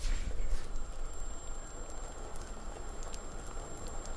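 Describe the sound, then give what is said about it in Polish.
A pot of soup made with cucumber broth boils, giving a steady, thick bubbling with soft smacking pops scattered throughout. No one speaks. “takie oto mlaszczące bulgotanie charakterystyczne dla gotującej się zupy.”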